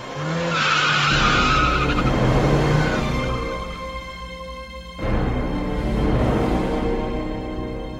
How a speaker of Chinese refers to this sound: 秀子啊的一声，紧急刹车。